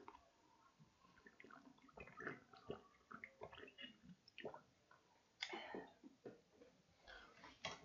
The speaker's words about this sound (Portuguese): Eu vou aqui só pegar minha água, um minutinho que eu esqueci, eu tô com sede já.